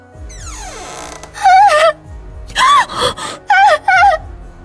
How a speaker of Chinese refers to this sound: 在出门的一刹那，不少女生再次尖叫起来。